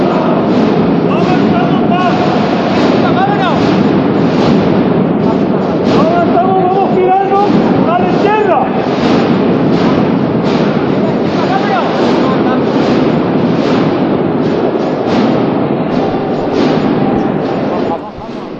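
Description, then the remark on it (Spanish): Inside the cathedral during the procession of the Hermandad de la Buena Muerte, as the Cristo's throne turns toward the Puerta del Perdón, a dense, steady wash of crowd murmur and shuffling fills the vast reverberant space, many indistinct voices blending before the sound dips slightly at the end. “Sonidos del interior de la catedral.”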